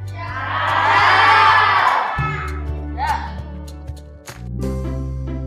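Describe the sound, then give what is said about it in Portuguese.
A group of children shouts goodbye together in a loud, excited burst of overlapping high voices, which then fades into scattered calls over a steady low engine hum. “Dá um tchau para a galera que está ouvindo aí.”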